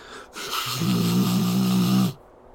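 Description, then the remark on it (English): A person vocally mimics the character Jessica blowing her nose into a handkerchief: one long, loud, honking nasal blast with breathy hiss, lasting nearly two seconds, with no speech. “And uh, Jessica like continues to brush the rest off and then blow her nose.”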